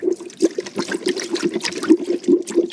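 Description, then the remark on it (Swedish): Water gurgles and bubbles steadily through a small water airlock on the outlet of a beer-brewing tank, with repeated soft glugs and pops forming an uneven, continuous burbling rhythm and no voices. “Så här härligt låter det ju då i eh, utloppet från tanken i det här lilla vattenlåset.”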